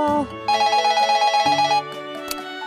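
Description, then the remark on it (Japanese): A telephone rings in a rapid, trilling burst of electronic tones lasting just over a second, fairly loud, with a brief voice just before it and a quiet hum afterward. “この電話の対応が終わったら一旦ワンワン部に戻ってもいいかわン”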